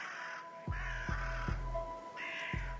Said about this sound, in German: überall an seinem Anwesen Raben postiert, die bei jeder Bewegung in der Nähe des Hauses Lärm veranstalteten, was sein Eindringen unmöglich machte.